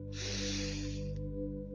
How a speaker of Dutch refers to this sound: En misschien dat je jezelf gewoon een hele diepe, uh, nou, frisse ademhaling cadeau geeft. Zo'n lekkere diepe in.